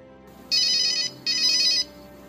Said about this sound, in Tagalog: Tumunog ang cellphone ko. Nakita ko ang isang numero na hindi registrado sa phone ko.